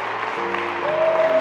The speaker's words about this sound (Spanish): Dale un aplauso fuerte, Señor.